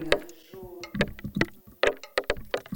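Small water droplets land on the thin metal tines of a rake in an irregular patter of dull taps, some leaving a faint metallic ring, at moderate loudness with no voices.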